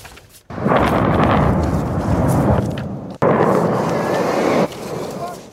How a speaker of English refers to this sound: Home security cameras capturing the first overnight explosion near Port Neches, just east of Houston.